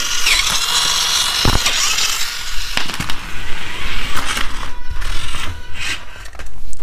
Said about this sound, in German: Naja, das Auto habe ich jetzt hier vor mir stehen. Ich habe eben schon mal Batterien in die Fernsteuerung gepackt und ich mache es mal an, um zu testen, ob es funktioniert.